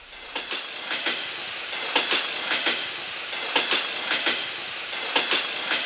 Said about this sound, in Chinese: 好了，现在想象一下。你在印度的某一个火车站的月台上，即将登上开往下一站的列车。